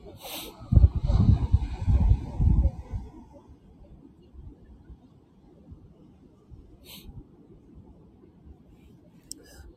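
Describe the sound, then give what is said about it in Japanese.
Ocean waves in Sydney, Australia, shortly after sunrise: a wave surges and breaks in a loud rushing burst, then settles into a steady low wash of surf with no voices. “海の音聞こえるかな波の音。”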